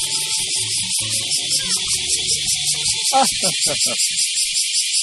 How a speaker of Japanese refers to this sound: 危ない死にそうなセミがいる。隅っこの方に置いといちゃった。